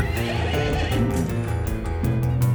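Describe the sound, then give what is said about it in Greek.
A horse neighs loudly, one long shaky whinny lasting a couple of seconds with a rising, quavering pitch and no voices. “Κοίταξα και είδα ένα μαύρο άλογο που ο καβαλάρης του κρατούσε στο χέρι του μια ζυγαριά.”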